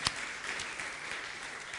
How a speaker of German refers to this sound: da können wir mal einen fetten Applaus geben. Genau.